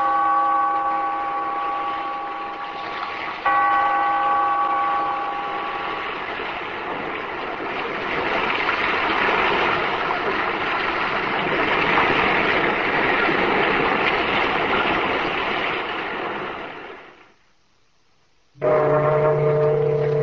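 Loud, restless sea waves roar and wash continuously, with a low horn-like tone sounding over them early on, then a brief pause of silence before the sound resumes.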